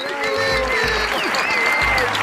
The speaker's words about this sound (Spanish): por lo que nos toca finalmente saludar con un fuerte aplauso a nuestro invitado de hoy, a esta, su cabina estelar